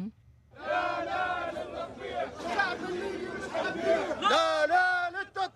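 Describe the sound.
A crowd of protesters in Libya chants slogans loudly against normalization with Israel and for ousting the Libyan government, many voices shouting together in rising, rhythmic bursts over a steady hubbub, with a few sharper cries standing out.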